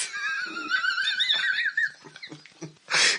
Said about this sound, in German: ich hab was geknetet. Ich hab was geknetet. Hackfleisch geknetet, genau. Hat man auch gehört.